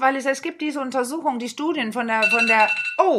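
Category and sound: signal or alarm, mobile phone alarm ringing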